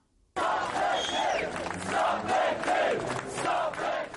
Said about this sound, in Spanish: Al grito de paremos el golpe, miles de personas protestaban a las afueras de Westminster contra Boris Johnson y su polémica medida para frenar cualquier plan de la oposición para evitar un Brexit sin acuerdo el 31 de octubre